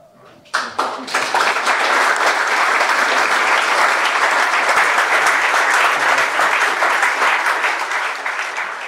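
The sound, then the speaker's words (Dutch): An enthusiastic audience applauds a story and its performance: after a brief quiet start, the applause swells into dense, steady clapping from many hands that holds strong for several seconds before easing slightly at the end. “Dat was het applaus van het enthousiaste publiek voor het verhaal en de vertolking.”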